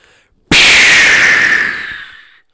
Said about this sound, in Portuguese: Bombinha de fumo.